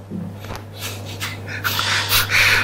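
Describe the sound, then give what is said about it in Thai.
Heavy, noisy breaths into the microphone from two people breathing at the same time, several rough inhales and exhales in a loose rhythm, growing louder toward the end, over a steady low electrical hum. “มึงจะมาขอนหายใจอะไรพร้อมผมเนี่ยหายใจพร้อมกันด้วย”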